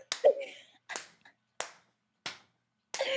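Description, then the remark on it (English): Five sharp hand claps spaced roughly evenly apart, someone clapping to imitate the loud smacks of wrestler Rikishi's buttocks being slapped, as heard through turned-up camera mics, with a brief vocal sound near the start. “Like, what made it worse for me was them turning up the camera mics for when he smacked them, and all you heard was, yeah.”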